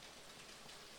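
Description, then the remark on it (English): A steady, even hiss of rain drumming outside during a rainstorm, soft, continuing unbroken for the whole second with no voices. “Uh, there's a rainstorm going on.”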